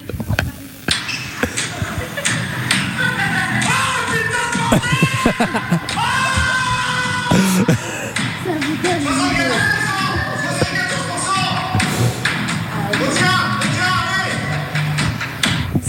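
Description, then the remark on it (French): Several people scream and shriek in fright at a zombie attraction at Dream Away, loud and overlapping, amid a busy crowd with sharp thuds and bangs throughout, the commotion continuing steadily for the whole stretch. “Il y a eu des gens mais qui crient à fond.”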